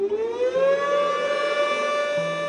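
Air raid sirens in Lushan, China, howl in a long, loud wail in memory of around 200 people killed in an earthquake, pitch sliding upward before holding a steady, sustained tone with no voices present.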